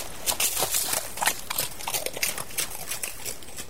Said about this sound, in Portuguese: Eu ando mesmo no lombo de, de um cavalo 15 quilômetros, só que parece ser os 40, porque a estrada é muito ruim, você tem que estar.